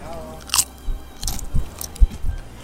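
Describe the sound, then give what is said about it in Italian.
Crunchy bites and chewing of a particularly crunchy piadina flatbread, bitten into at the microphone, with several sharp crackling crunches in an irregular rhythm, loud and near the microphone, with no talking. “Si è, si è sentito bene il crunch.”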